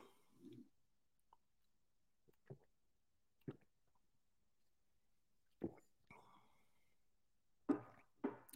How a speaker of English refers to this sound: Let me take a sip of water.